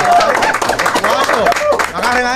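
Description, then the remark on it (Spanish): An audience claps in a steady, dense patter, mixed with loud voices and cheering that stay on top for the whole stretch. “Aplaudamos otra vez, aplaudamos otra vez.”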